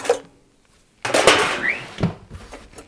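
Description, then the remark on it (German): Metal pans and utensils, including an old broken pan and old rusty tin snips, clatter and scrape as someone rummages through them, a brief clank at the start, then a dense burst of jangling and scraping after a short silence. “Ah, eine alte kaputte Pfanne ist hier zum Beispiel auch drin.”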